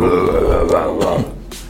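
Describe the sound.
A voice mimics a growling metal singer: a loud, rough, guttural roar held for under two seconds, raspy and low, dropping slightly in strength toward the end.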